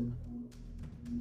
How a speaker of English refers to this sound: Okay, that's a fucking huge truck out there. I don't know what the deal is with that. If you heard that in the background.